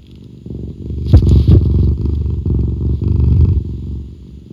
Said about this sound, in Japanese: ゴロゴロ言ってます。